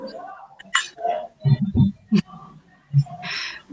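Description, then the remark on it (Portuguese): Choppy internet connection interference during an online call, with rain contributing to the poor connection: garbled, broken-up voice fragments mixed with low thumping pulses and short bursts of hiss, uneven throughout. “Tô com, eu acho que a internet, não sei se a internet aqui não está muito boa ou, enfim, está com uma interferência.”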